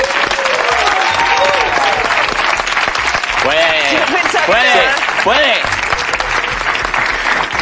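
An audience applauds loudly and steadily for the whole stretch, a dense wash of clapping, with a few rising whoops and cheers breaking through partway in.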